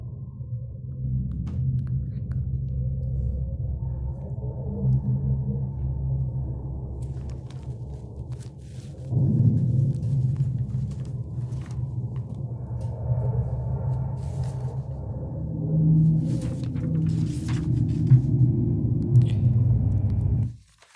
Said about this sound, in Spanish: Por cierto, aunque Marte lleva el nombre del antiguo dios griego de la guerra. Su sonido es bastante pacífico. Ese es el sonido de Marte.